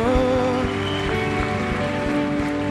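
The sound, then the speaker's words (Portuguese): A church audience stands and applauds Jesus in a steady, dense wash of clapping that holds throughout, with sustained music tones playing underneath. “Vamos se colocando de pé enquanto aplaudimos a Jesus.”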